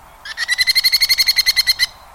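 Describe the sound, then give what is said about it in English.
A merlin falcon, a small falcon about 10 inches tall with a 2-foot wingspan, gives a rapid, shrill chatter of about fourteen evenly spaced harsh notes over less than two seconds, loud, with no other sounds around it. “One falcon, much more prevalent across the U.S. in winter, is the merlin.”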